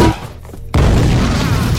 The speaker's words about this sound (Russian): Граната гранаты, несколько немцев падают сзади.